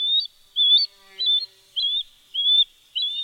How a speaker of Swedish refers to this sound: Ja, direkt när jag hörde visslingen fick jag flashbacks från när jag var liten och fiskade i farmor och farfars sjö i Halland. Där fanns det fiskljuse som jag tycker låter väldigt likt.